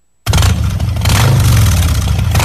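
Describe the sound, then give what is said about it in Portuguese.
After a moment of silence, a heavy Harley-Davidson motorcycle engine bursts in loud, its deep, throaty rumble revving up and swelling midway before holding a steady roar, in an advertisement for the Santos Harley Davidson dealership. “A Santos Harley Davidson vai te ajudar a conquistar novos lugares e descobrir um mundo novo. Toda linha de motocicletas”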